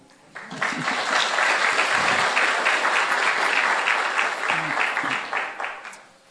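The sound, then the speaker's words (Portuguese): Audience applause at a church gathering in Brazil breaks out and holds steady as a dense, crackling wash of many hands clapping, loud throughout before tapering off at the end. “Why don't you stand and give them a big hand clap?”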